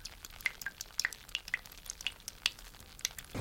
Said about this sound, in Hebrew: הנה, אתם יכולים לשמוע אותו מטפטף חומרים?